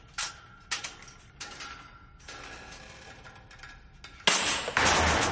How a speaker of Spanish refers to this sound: Al oír el ruido se paraliza. El carrete se mueve sobre el poste de metal de la cama.